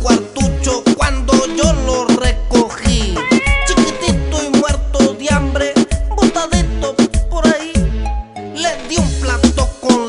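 Repeated cat meows ring out within a reggaeton song about a pet cat, over a steady, thumping dance beat with deep bass pulses, the mewing calls rising and falling loudly throughout, blended into the music.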